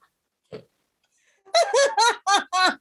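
A single short, low burp sounds close by, followed after a pause by a quick run of five bright, rhythmic bursts of laughter.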